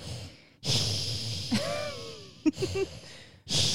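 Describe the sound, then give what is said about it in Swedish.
A person imitates how a companion snores, hissing a little like a snake: a few breathy, sibilant exhalations, one slipping into a brief groaning tone, separated by short pauses. “när Anna snarkar brukar det normalt sett vara så här”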